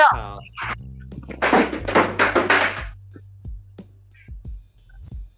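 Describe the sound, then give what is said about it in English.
A pigeon striking a window: a sudden thump with a rush of flapping bursts, followed by a few softer knocks and taps. A voice is briefly audible at the start. “A fucking pigeon there flew into my window.”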